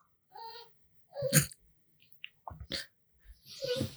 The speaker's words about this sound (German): Sonst fängt der Hund immer erst in den letzten zehn Minuten des Podcasts an zu jaulen, weil er kacken nee, muss.